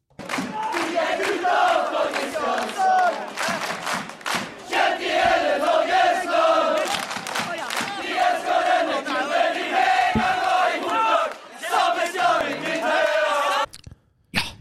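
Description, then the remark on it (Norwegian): A short, loud jingle with busy layered tones and rapid percussive hits, carrying a shouting, crowd-like quality throughout before cutting off abruptly near the end. “Eh, jeg skyter inn eh, som programleder med en liten jingle.”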